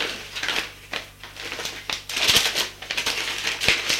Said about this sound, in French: Elle met la lettre dans son enveloppe